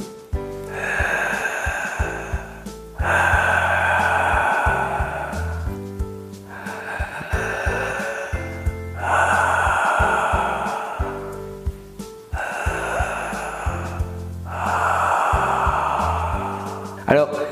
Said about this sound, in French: Voilà, il s'agit d'une respiration très bruyante. Nous allons la faire ensemble trois fois, c'est parti.